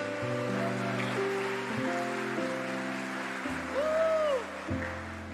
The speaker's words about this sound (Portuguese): Uma salva de palmas para os nossos voluntários.